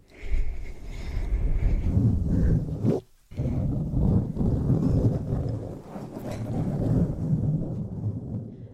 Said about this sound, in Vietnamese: Hay là tiếng cây cọ trang điểm cọ sát vào mic.